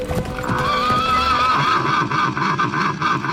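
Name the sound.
horse neighing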